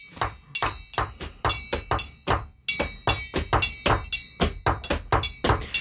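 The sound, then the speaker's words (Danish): A cabinet lock is banged against a table in a quick, uneven series of sharp, loud knocks, some landing in rapid pairs, continuing steadily for several seconds with no talking. “Og så tager jeg det her, ha, øh, den her skabslå, og så banker mod bordet.”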